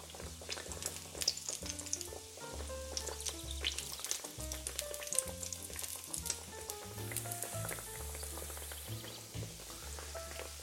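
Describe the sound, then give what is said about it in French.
Food frying and puffing up in frying oil in a pan, with a steady sizzle full of dense crackles and pops that carries on without a break. No one speaks. “Voilà, dès qu'on sent que les bulles sont un peu moins toniques, on remet un petit coup de feu dessous, on augmente le feu, et il va falloir les retourner aussi à mi-cuisson.”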